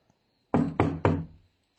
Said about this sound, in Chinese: 敲门声传了过来。